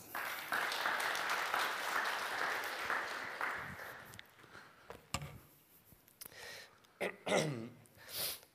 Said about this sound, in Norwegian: Skal vi gi det en god applaus?